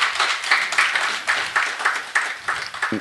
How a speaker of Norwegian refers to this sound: Applaus for Per Granberg, da.